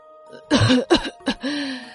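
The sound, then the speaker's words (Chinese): An old woman coughs as a plump middle-aged man helps her down the stairs: three rough, throaty bursts in quick succession, the last one shorter, followed by a drawn-out, wavering voiced groan. Fairly loud, with no talking. “众人抬头往楼上看，却发现只是一个胖胖的中年人扶着一位咳嗽的奶奶下楼。”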